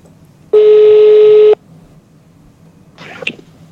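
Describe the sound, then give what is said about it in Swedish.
A single loud, steady telephone ringing tone sounds for about a second as a call is placed, followed by quiet and then a brief burst of faint rustling noise. “Ja, vi ringer, vi ringer, vi ringer.”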